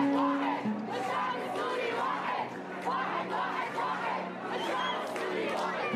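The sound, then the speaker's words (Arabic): A large crowd at a Syrian protest chants loudly in unison a slogan calling for the unity of all Syrians, voices rising and falling in a steady rhythmic cadence with dense overlapping shouts throughout. “وتوقع انه هالشيء انعكس ببعض الهتافات اللي نادت بالوحده لكل السوريين طبعا وعلى سبيل المثال للحصر هتاف”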